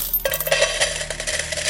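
coins dropping and clinking

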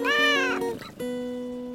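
cat meowing

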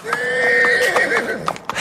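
horse neighing

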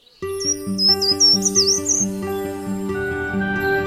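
short-toed treecreeper song

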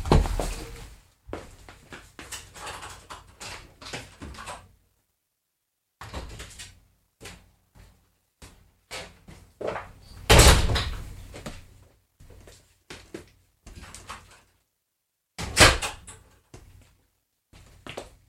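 knocking on a door

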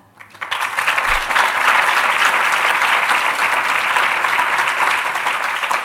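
audience applause

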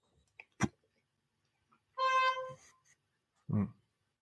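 short car horn honk

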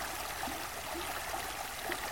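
flowing stream water

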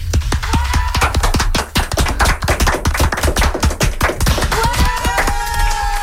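applause sound effect

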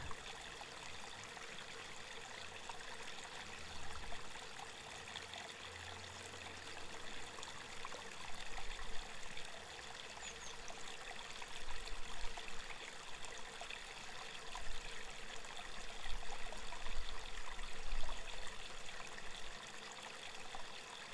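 flowing stream water

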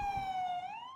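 ambulance siren

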